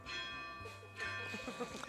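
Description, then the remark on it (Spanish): Church bells ring with long, sustained metallic tones that shimmer and overlap, fairly loud and steady, while faint voices murmur underneath. “A que nadie sabía que duraban tanto las campanas.”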